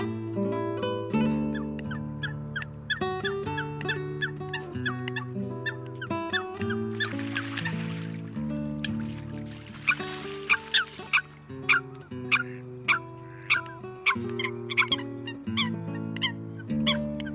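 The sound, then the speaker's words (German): A Eurasian coot calls repeatedly, sharp nasal honking notes coming in quick bursts that grow more insistent toward the end, fairly loud with no voices. “Das war das Blesshuhn.”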